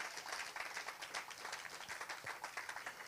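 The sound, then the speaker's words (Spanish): A church audience applauds the mothers who serve in the church, steadily, dense overlapping claps forming a continuous crackling wash with no single beat standing out, sustained at an even level throughout. “También las que son, sí, dale un fuerte aplauso a las madres que sirven en la casa de Dios.”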